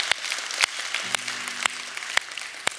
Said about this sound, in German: Komm, wir geben Jesus mal einen Applaus.